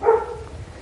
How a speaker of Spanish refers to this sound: Ese es el perro, aquí ya, ya sabéis.